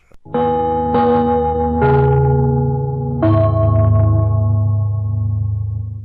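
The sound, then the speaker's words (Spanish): A gong is struck four times in an uneven sequence, each loud metallic tone ringing out and overlapping the next as it slowly fades, as a cue for affiliated stations of the Radio Portales sports network in Chile to connect. No voices are heard. “Al toque de gong, sírvanse conectar.”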